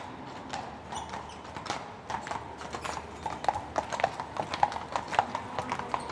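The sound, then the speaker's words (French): A horse's hooves clip-clop at a steady walking pace, pulling a cart whose wheels rumble and rattle continuously underneath, the hoofbeats growing slightly louder and sharper. “Ben oui, un chartier, c'est un qui même des chevaux, avec la charrette, là.”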